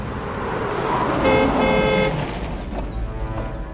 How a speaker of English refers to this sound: The car slows down as it approaches a magnificent gateway.